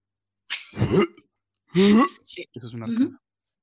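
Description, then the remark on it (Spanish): A person imitates gagging (retching) with three strained retching bursts, harsh throaty heaves with voiced edges, loud, with brief pauses between them and no talking. “Para los que no saben que es una arcada, una arcada suena así.”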